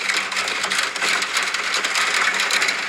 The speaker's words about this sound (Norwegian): jeg hadde parodisk lyd av regn i natt